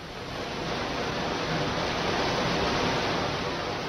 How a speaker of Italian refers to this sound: non so se vi giunge questo rumore. Arriva perfettamente. Ecco, questo non è un fiume, è la via Cerretani, è la via Panzani, è il cuore di Firenze, invaso dall'acqua.